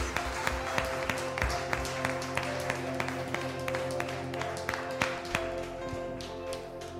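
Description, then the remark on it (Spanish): An audience at a worship service claps steadily for several seconds in thanksgiving to Jesus, a dense burst of applause with a few sharper individual claps, while a sustained musical tone holds underneath. “Vamos a darle un fuerte aplauso a Jesús en acción de gracias.”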